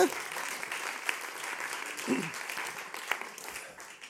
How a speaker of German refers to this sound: Also Applaus natürlich, danke.